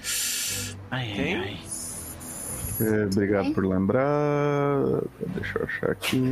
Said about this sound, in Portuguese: Saúde, tu. Sai, saúde a quem espirrou. Meu gato tá espirrando. Eita. Saúde ao seu gato.